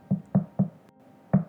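Four solid knocks on a door, three in a quick even run and then a fourth after a short pause, each a low, dull thud with no voices.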